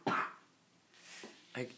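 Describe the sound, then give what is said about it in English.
A speaker giving a talk lets out a sharp cough, followed by a breathy inhale and a second, shorter cough moments later, with no talking. “you guys are just going to have to excuse the cough.”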